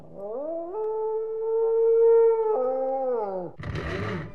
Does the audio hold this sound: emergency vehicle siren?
no